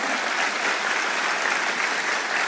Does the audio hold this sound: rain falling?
no